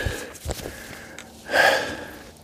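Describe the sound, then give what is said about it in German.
Heavy, breathy panting of a person walking in a forest: a few short gasps followed by a longer, louder exhale, with no talking. “Ich bin wieder am Keuchen.”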